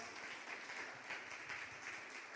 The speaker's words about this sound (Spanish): Así que qué bueno que podáis estar aquí y también nos damos un aplauso muy fuerte a todos los que estáis en este lugar. Bienvenidos.